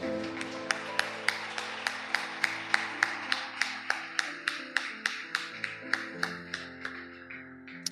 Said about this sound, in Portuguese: Vamos dar uma salva de palmas para ele.